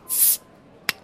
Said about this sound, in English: Pop a bottle.